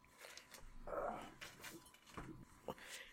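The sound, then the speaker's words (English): A female dog whines and whimpers, its high tremulous cries broken by a couple of short, sharp barks near the end, all fairly quiet. “keep her from barking.”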